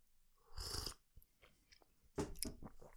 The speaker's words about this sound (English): Just have a quick sip of tea because, as we've established, I do these things in the morning.